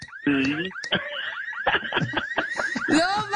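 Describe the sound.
A person vocally mimics a car alarm with rising and falling whooping tones repeated several times, loud, with a burst of laughter mixed in.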